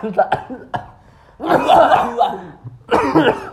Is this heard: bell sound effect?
no